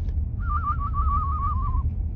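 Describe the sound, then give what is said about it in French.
A person whistles an imitation of a tit's song: a single wavering, trilling note held for about a second and a half, slightly falling in pitch, over a low background rumble. “Ah, ça, c'est pas une mésange Ouais, ça peut être un peu une mésange.”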